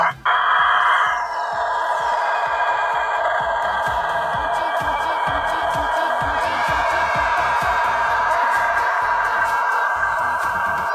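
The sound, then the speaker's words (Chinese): A rooster on a farm near the city of Denizli crows in one extremely long, unbroken call that holds a steady, strained pitch for about eleven seconds, loud throughout with a slight shift in tone partway through. “好样的，打公鸡，打公鸡，打公鸡都是战斗机，打完鸣我才敢呼吸，给你个敬业福。”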